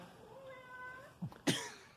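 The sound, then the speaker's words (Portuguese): A cat lets out one long, wavering meow at moderate volume, followed by a couple of short, sharp knocks or bumps near the end. “brocha, diga miau.”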